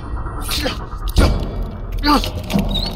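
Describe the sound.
One heavy, dull thump of an iced-up door being forced, landing sharply amid strained voices and grunting, with a faint high scrape afterward.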